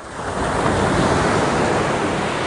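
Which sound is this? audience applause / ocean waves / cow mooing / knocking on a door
ocean waves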